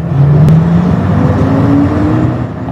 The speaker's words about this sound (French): L'engin démarre et là, le son est assez étonnant. C'est le son d'un vieux bus diesel, forcément, et pas du tout d'un train.